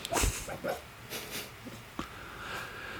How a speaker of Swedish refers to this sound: Och nu dröms det mardrömmar här nu tror jag. Ja, lilla vovven.